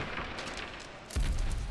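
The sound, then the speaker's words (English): A sudden, heavy crash rings out as the south exit doors of an arena are kicked down by a fighter entering the ring, one booming impact with a deep low thud that breaks through a steady background rumble and lingers briefly. “Oh no, now entering the ring by kicking down the south exit doors the terror of the Telerian Tesseract League, the Bone Breaker, the Life Taker, and the winner of the once in a century Battle of Orion's Belt, Skeletorus!”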